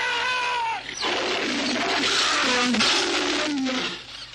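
In a film scene, a tiger facing Sandokan growls and snarls, a whining cry giving way to rough, noisy bursts and low rumbling roars that rise and fall over a few seconds before the tiger leaps.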